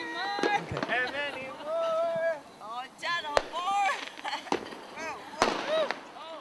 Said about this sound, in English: Okay, that was that was pretty exciting, right there. We we made it with our own fireworks.